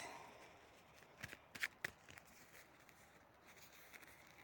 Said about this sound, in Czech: Už míchám karty, mám před sebou vaši fotku a už se budem dívat.